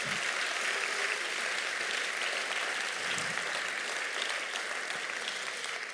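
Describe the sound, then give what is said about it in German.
An audience applauds its translators steadily for several seconds, a dense, even wash of many hands clapping with no voices standing out, fading slightly at the very end. “Und lass uns mal unseren Übersetzern einen Applaus geben.”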